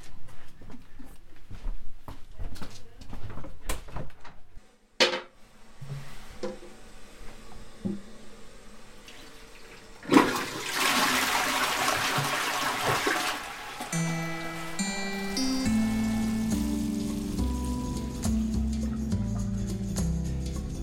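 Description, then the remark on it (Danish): A few sharp clicks and knocks, then a toilet flushes with a sudden loud rush of water, settling into steady running water from a tap with a faint whistling, ringing tone. “Må jeg lige låne toilettet herinde?”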